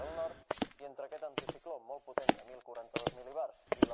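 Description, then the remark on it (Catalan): A woman's shoes climb a staircase in sharp heel clicks that come in uneven pairs, while she groans and hums wordlessly between the steps, breathing with difficulty. “Se sent unes sabates femenines que pugen per l'escala.”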